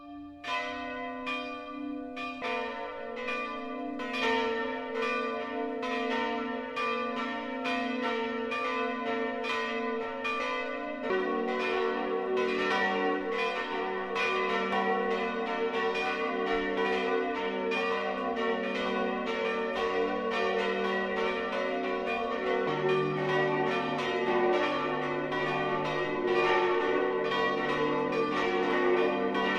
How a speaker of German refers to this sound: Es ist 12 Uhr. Das Mittagsläuten kommt heute von der katholischen Pfarrkirche St. Nikolaus in der Jachenau in Oberbayern.